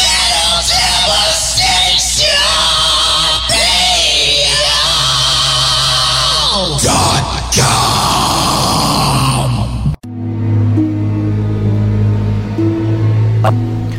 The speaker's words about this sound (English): Yeah. Black and dark Mithra metal.